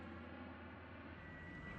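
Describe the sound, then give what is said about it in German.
A steady, droning transport aircraft engine roar with a low humming undertone, holding constant throughout, with no voices, at the Thule base in Greenland, where transport planes land several times a week. “Mehrmals in der Woche landen Transportflugzeuge.”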